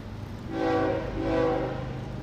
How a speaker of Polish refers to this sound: Stację wypełnił dźwięk nadjeżdżającego pociągu.